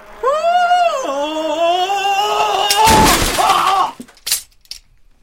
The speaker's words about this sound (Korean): 속도와 방향 감각을 잃어버린 자전거가 가드레일과 충돌하면서 녀석을 도로 한가운데로 내동댕이 치고 만 것이다.